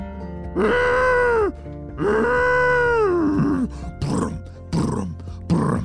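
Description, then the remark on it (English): A person voices a ginormous, very angry rhinoceros: two long, deep, wavering groaning bellows followed by three short, rough grunting snorts, loud, with no other talking. “That was the sound of a ginormous, very angry looking rhinoceros.”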